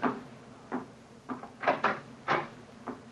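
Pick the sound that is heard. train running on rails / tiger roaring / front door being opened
front door being opened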